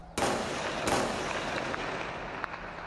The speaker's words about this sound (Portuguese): Os moradores registraram o intenso tiroteio. Neste vídeo, um policial se esconde atrás de um muro e faz disparos para o alto.